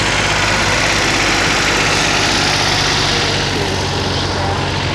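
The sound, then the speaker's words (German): A tractor in a parade, carrying elves and reindeer on its trailer, chugs steadily: a loud, continuous low engine rumble with a rough idling vibration, broad noise spread across the whole five seconds. “Er fährt auf seinem Auto, auf seinem Trecker Rentiere spazieren.”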